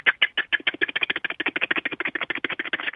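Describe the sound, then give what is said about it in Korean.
A caller on Park Myung-soo's Radio Show imitates a helicopter engine starting up with his voice, making a steady run of rapid, throaty chopping pulses, roughly ten per second, that stay fairly even in loudness for the whole stretch. “예, 그 헬기 시동 거는 소리.”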